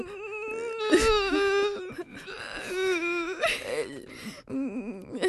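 A person cries loudly in the Studentradion 98,9 studio, with wavering, drawn-out wailing sobs broken by a few short pauses for breath across several seconds.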